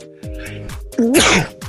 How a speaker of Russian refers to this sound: Господи, что я чихнул-то неожиданно так. Будь здоров.